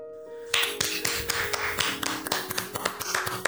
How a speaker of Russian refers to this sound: аплодисменты еще более жидкие, чем супы в моей школьной столовой.